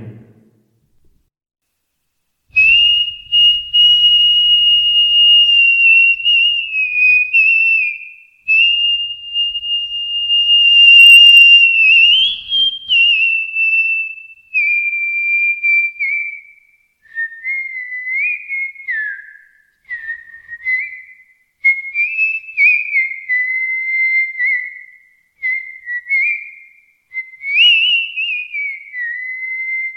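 A person whistles a movie song melody alone, clear, with sustained tones and gliding pitch changes in phrased bursts separated by brief pauses.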